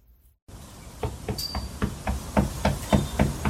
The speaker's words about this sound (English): Knock, knock. Who's there? Wait for it. Here it comes. It's a horse. Remind you of something? Hello. Just like Mr. Ed.